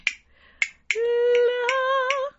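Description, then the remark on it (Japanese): Crisp clicks of plain natural-wood castanets ring out, three spaced strikes at first, then a few more scattered under a woman's sustained, wavering sung note, improvised in a pop arrangement of the opera Carmen. “で、これカスタネットだよね。”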